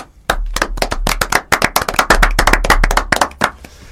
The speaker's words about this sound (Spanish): ¿A quién vamos a aplaudir ahora? ¿Quién estaba detrás del seudónimo Manuela?